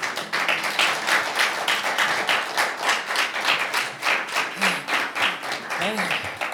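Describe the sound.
An audience at a church service bursts into sustained applause for God, a dense, steady wash of many hands clapping at a lively pace, with a few voices calling out faintly underneath.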